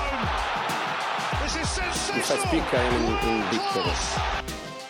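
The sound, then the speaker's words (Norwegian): A ball bounces repeatedly up into a hand in a quick, steady rhythm, each dull thud fairly loud, while people talk and chatter over it with an echo. “den ballen som tilsynelatende spretter opp i hånda di på TV-bildene, gjør den egentlig det? Ja, klart den gjør det.”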